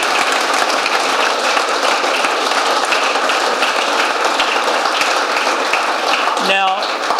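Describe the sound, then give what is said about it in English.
An audience applauds in a steady, dense wash of clapping that holds at an even loudness for several seconds, with a brief voice rising near the end. “A round of applause.”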